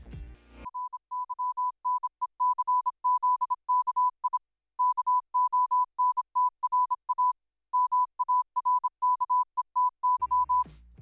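A steady, clear Morse code tone beeps in quick dots and dashes for about ten seconds, grouped into bursts separated by short pauses, with a brief rustle of noise at the start and end.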